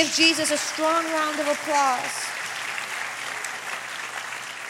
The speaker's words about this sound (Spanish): Amén. Dar un aplauso a Jesús.